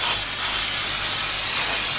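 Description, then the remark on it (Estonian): A steam cleaning gun sprays steam onto a shoe sole, washing the dirt off, in a steady, loud hiss that runs unbroken for the whole moment, with no voices. “et ma teen puhastusainega kokku selle talle ja teisest auruga pesen, pesen selle mustuse maha.”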